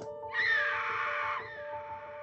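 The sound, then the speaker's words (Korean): A woman's shrill scream rings out across a store for about a second, echoing, then fades, leaving a steady low hum in the background. “한 여성의 피해 굶주린 비명소리가 매장을 가로질러 울려 퍼졌다.”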